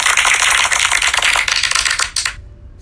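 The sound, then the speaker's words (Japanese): A dense, steady crackling clap sound effect from a feature used for the first time, like rapid popping applause, plays loudly for about two seconds, then thins out and stops abruptly. No one speaks. “パパチパチ言っとるわ 初めて使ったこの機能で”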